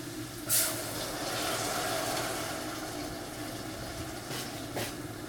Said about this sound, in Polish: W międzyczasie wlejemy pierwszą porcję wody do duszenia pieczarek. Jest około 1 trzeciej szklanki.